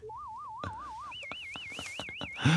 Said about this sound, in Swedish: 500 kilohertz one octave warble. Som låter typ så här